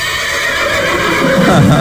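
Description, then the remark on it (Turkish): A horse neighs loudly, a single sustained whinny that rises in pitch and wavers toward the end, with no talking over it. “ya sadece bu kişnemeyle kabul edilebilecek bir şey değil”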